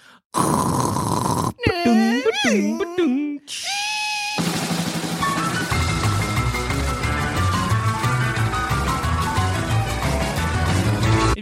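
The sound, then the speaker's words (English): Voices mimic a dial-up modem connecting: a hiss, warbling beeps and swooping tones, a steady whistle, then a long burst of dense, crackling static, loud for about eleven seconds. “What was your favorite bit of the ba-dung, ba-dung”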